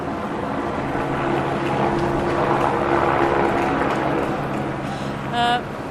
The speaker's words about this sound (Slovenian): Mimo glasno švigajo avtomobili in e, avtobusi, e, prek sosednega mostu je ravno peljal vlak, po reki v tej kakofoniji skoraj neslišno plujejo ladje. Na nebu je glasen helikopter.